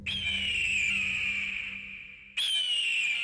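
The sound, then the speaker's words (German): An eagle's sharp, piercing cry rings out loud and clear, one long drawn-out whistling call that slowly fades, then a second cry bursts in right after. No other sounds. “Da blickte er fragend in die Höhe denn er hörte über sich den scharfen Ruf eines Vogels.”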